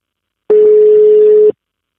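A single steady telephone ringback tone of an outgoing call sounds for about a second, a loud, flat mid-pitched hum with a slight buzzy edge, starting and stopping abruptly, with silence around it and no voices.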